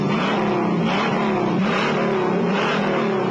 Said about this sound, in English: And power as big as a new 428 Cobra Jet Ram Air Induction V8 option to make the Mach 1 the hottest car in Mustang's class. An 8 so hot performing, it comes with its own poke-through air cleaner that jumps when the engine grinds.